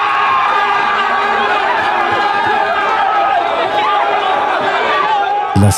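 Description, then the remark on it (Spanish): The Aston Martin Formula 1 pit crew cheers and celebrates, a dense, steady wash of many excited voices shouting and whooping together for several seconds, with a sharp burst near the end. “Escuchen la alegría del el pit de, Aston Martin.”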